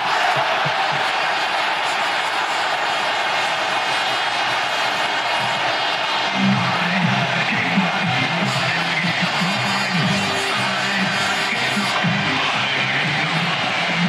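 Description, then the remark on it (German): A football stadium crowd roars in sustained, loud cheering after Leonardo Manzi scores from a cross for a 1-0 lead, a dense wall of voices with rhythmic chanting and whoops rising in the second half. “Leonardo Manzi der Rest war Jubel.”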